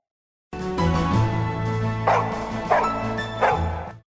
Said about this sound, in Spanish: El perro de la casa, amarrado en el patio, comenzó a ladrar.